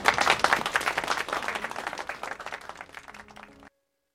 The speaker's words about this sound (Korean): 자, 여, 여러분 박수 한번 주세요.